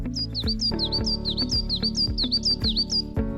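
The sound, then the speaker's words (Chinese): Small colourful birds with green wings flying about a big tree in a rainforest chirp: a quick, steady run of about a dozen high, downward-sliding tweets over a sustained low musical backdrop with soft regular thumps, and no talking. “有好多彩色的小鸟飞来飞去哦，翅膀是绿色的耶。”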